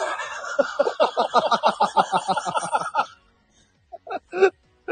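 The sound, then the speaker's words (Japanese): A person rapidly gobbles like a turkey, a fast burst of throaty, pulsing bird-like calls lasting about three seconds, followed by a pause and a few short vocal sounds. “いつも鳥なんでしょ、鳥なんでしょ”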